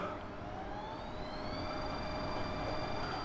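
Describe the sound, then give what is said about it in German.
A telescope drive motor whines steadily as it slews the telescope to a star's position, its high tones gliding slightly upward over a constant mechanical hum, with no voices throughout. “So, und dann fährt man dann das Teleskop an eine Position, also dort, wo man beobachten will, also einen Stern. Jetzt hört man hier, der Motor ist nicht mehr so laut wie früher”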